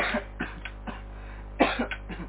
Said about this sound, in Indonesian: batuk lagi. Ya, batuk. Minum obat dulu nih biar enggak batuk.